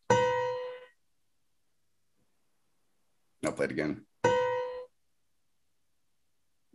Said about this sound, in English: Hopefully, you heard um, well the crunchiest interval. Uh, for lack of a better term, would be the root in the major seventh, again played